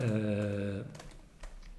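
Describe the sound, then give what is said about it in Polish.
A sustained vocal hum gives way to a few quick, soft keyboard taps on an iPad keyboard case, fairly quiet, clicking irregularly over a faint background. “na klawiaturze.”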